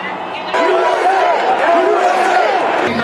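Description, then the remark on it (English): A large crowd of thousands of Trump supporters marching in the streets of Washington, D.C. to reject the election outcome shouts and cheers together, a dense wash of many voices with rising chant-like calls swelling over a steady loud background roar, continuous for a few seconds. “Today in Washington, Trump supporters gave the president one thing that tees up bragging rights a huge crowd.”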